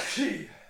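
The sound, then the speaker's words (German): A single short sneeze, a quick voiced burst with a hissy rush of breath that fades within a second. “Gesundheit oh, und ein oh, oh.”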